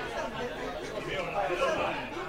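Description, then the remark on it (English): Steady murmur of many overlapping voices fills a packed college classroom in Taiwan, gathered to hear leaders of the 1989 Tiananmen Square pro-democracy movement, a continuous, moderately loud babble with no single speaker standing out, holding fairly even for the whole couple of seconds. “Here's a scene you won't see in China these days a packed college classroom listening avidly to some of the leaders of the 1989 Tiananmen Square pro democracy movement talk about China's prospects for democracy.”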